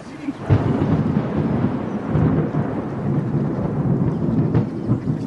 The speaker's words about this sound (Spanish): Ha comenzado a llover. La acción en el mismo parque.